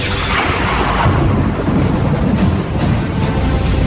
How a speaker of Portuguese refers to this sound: O barco estava quase virando. Todos começam a gritar de medo. Todos entram em desespero total diante da tempestade, diante dos trovões, diante dos relâmpagos e raios.